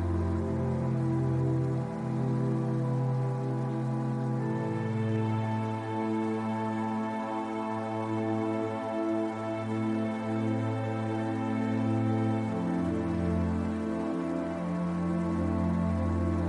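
Steady cascading water of a waterfall rushes continuously beneath a soft, sustained musical drone of meditation music whose chords shift slowly; the water stays constant and moderately loud throughout, with no voices.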